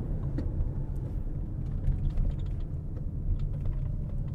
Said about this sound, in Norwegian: Ja, der kommer traktor òg. Ja, de har sånn følgetraktor.